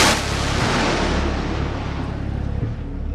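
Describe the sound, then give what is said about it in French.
A thunderous, sustained roar of a salvo of rockets launched right next to where the listener stands, a dense rumbling blast that starts abruptly and rolls on without pause, with no voices. “Rockets were just shot right next to where we're standing.”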